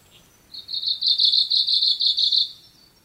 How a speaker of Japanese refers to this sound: 手がかりはこの鳴き声ですちょちょりちょちょりちょちょりという独特のリズムと声こそがオウムシクイの身分証なのです